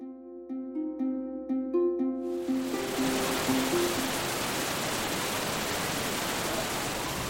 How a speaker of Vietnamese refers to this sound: Tôi còn nghe cả tiếng nước chảy rất to.